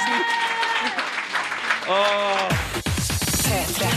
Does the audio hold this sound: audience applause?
yes